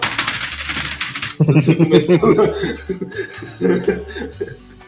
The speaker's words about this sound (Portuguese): O teclado dele batendo. Tô mesmo. O teclado batendo.